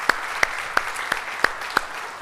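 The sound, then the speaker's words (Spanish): An audience applauds, with a steady wash of clapping underneath and six sharp, evenly spaced claps standing out in a regular rhythm. No one speaks. “Dale un fuerte aplauso.”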